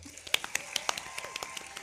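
Sparse, scattered applause from a small audience: a quick run of sharp, irregular claps, fairly quiet and thin rather than a full ovation.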